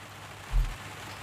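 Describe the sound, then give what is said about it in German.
Raindrops patter steadily against a window in a soft, continuous hiss, with one brief low thump partway through. No voices are heard. “Als die Wolke nun sein Zimmer verlassen hat, da liegt er in seinem Bett und er hört, wie die Regentropfen an sein Fenster platschen.”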